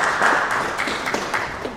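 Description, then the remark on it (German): An audience applauds at the end of a church service, a dense, steady wash of many hands clapping at once with no individual claps standing out, holding an even level throughout. “Am Ende gibt es Applaus.”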